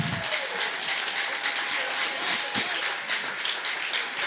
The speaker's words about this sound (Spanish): Dale el aplauso fuerte al Señor.